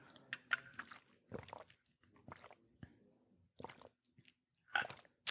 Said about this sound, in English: i'm gonna get a sip of water and think